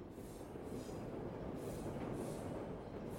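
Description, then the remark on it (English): An underground tube train thunders past behind a ten-foot-high brick wall at the end of a street, a steady, heavy low rumble with rhythmic surges of rattling wheels and no voices over it. “And like it was cutting the street dead in its tracks, stood a ten foot high brick wall behind which tube trains thundered by.”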